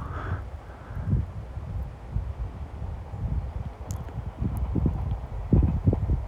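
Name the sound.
train passing by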